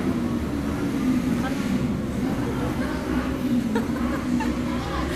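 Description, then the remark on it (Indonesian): Motorcycles of a motorbike gang on a Saturday night rumble past outside in a steady, throaty engine drone that fills the whole stretch, loud and continuous with a slightly muffled, droning tone. “Biasa guys malam minggu geng motor.”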